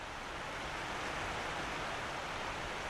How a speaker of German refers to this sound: Zum Beispiel die eiszeitliche Rabisch- und Groppensteinschlucht im unteren Malnitztal, in der das Wasser lärmt und schäumt, sodass man sein eigenes Wort nicht verstehen kann